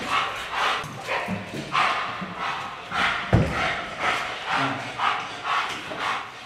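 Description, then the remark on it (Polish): A police dog barks aggressively and relentlessly, a rapid string of loud barks in a steady rhythm with hardly a pause between them. “ale jeżeli znajdzie się jak osoba tak agresywna, czyli zacznie się nieodpowiednio zachowywać, powiedzmy okrzyki, wymachiwanie rękami, nogami, pies wtedy się pobudza, bo to jest tu metoda taka szkoleniowa, kojarzy to po prostu z agresją.”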